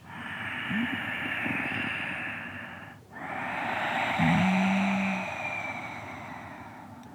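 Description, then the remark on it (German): Two long, hissing ujjayi breaths made by narrowing the glottis, an inhale then an exhale with a short pause between, loud, rasping like Darth Vader breathing through his dark helmet. No one speaks. “Und die Ujjayi-Atmung, die klingt eben ganz ähnlich wie Darth Vader, so als würde Darth Vader durch seine dunkle, äh, durch dein, seinen dunklen Helm atmen.”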